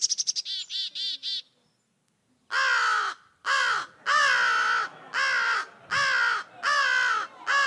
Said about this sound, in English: Okay, so we, that's the crow.